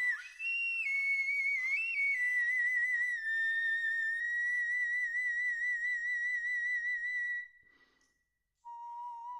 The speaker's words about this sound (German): So klingt sie also, die Knochenflöte. Ist ganz schön, aber ich persönlich finde unsere Flöten heute noch ein bisschen schöner.